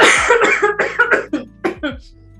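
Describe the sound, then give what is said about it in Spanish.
A loud fit of coughing: seven or eight harsh coughs in quick succession, growing weaker and more spaced out until they trail off into quiet. “está no aguante, bien, aguante la tos.”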